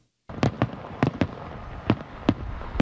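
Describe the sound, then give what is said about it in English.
Fireworks burst in a rapid, irregular series of sharp, loud bangs, some in quick pairs, over a steady crackling rumble with no talking. “The loud bangs of fireworks are usually a sign of celebration, a sight many have come to expect on Canada Day.”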